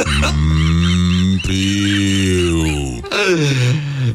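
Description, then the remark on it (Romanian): A person imitates a calf mooing with three loud, drawn-out lowing calls, the first two long and steady, the last shorter, separated by brief breaths. “pentru puiul de vacă. Puiul de vacă. Uh... Cum face piul?”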